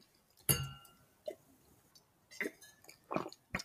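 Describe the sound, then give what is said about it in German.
Wine glasses of red wine from the Rhine clink together once in a toast, a bright chime with a ringing tone that fades over about a second, followed by a few soft sipping and mouth sounds. “das hier ist ein guter Rotwein vom Rhein. Und ich würde sagen, Prost, ne?”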